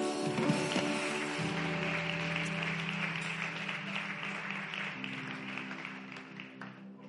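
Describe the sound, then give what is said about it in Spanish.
An audience at Iglesia BN3 Nogales church applauds for Jesus steadily for several seconds, a dense wash of clapping over sustained keyboard chords that shift partway through, fading slightly toward the end. “Aplauso a Jesús.”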